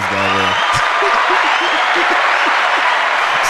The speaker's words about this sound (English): I'm about to give a round of applause for that one.